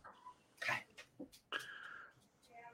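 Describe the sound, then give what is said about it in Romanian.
A pet animal makes a few short snuffling bursts, then a drawn-out, high whining cry that could be a dog or a cat, fairly quiet in a room. “Adică cățelul sau pisica”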